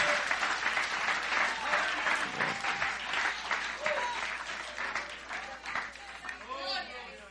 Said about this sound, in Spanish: palmas, palmas, palmadas, aplausos.